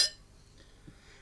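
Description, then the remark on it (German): Glasses clink together once in a toast, a bright ringing chime at the very start that fades quickly into quiet, with no one speaking. “In diesem Sinne hebe ich mein Glas.”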